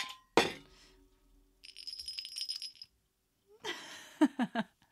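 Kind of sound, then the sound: household object, ice clinking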